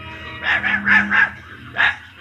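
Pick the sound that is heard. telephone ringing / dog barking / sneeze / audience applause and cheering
dog barking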